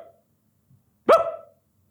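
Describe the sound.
A person's voice imitates the single sharp bark of their dog when it was young, loud, one short punchy burst with a quick tail, standing alone after a brief faint murmur and near silence.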